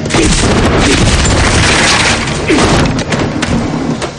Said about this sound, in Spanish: Saca su arma y dispara a la puerta.